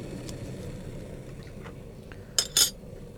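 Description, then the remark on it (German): Water boils in a kettle for making organic tea, with a steady, low bubbling rumble that fills the whole moment, and two quick, bright clinks of crockery ring out near the end. “So, das Wasser kocht gerade, das hört ihr jetzt.”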